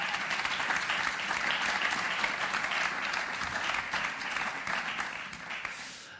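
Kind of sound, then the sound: crowd, applause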